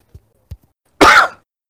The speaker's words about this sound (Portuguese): Ah, mas depois a gente tira na edição, porque saindo só no canal que tossiu, a gente. É. A gente só deixa uma tosse pra, pra o pessoal saber é uma tosse.